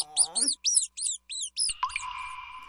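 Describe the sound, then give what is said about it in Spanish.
Laboratory mice squeaking: about seven quick, high-pitched squeaks in a steady rhythm, then a longer, wavering squeal at the end, clear. “Ratones de laboratorio.”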